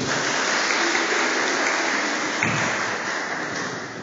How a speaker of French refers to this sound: Euh, on peut l'applaudir, s'il vous plaît. Voilà.